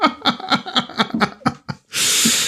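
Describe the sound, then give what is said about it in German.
A tapir gives a quick run of about seven shrill, nasal squeaks in a steady rhythm, fairly loud, then ends with a sharp breathy hiss or snort. “Da steht dieses Tapir da und das macht halt einen laut quietschenden Ton.”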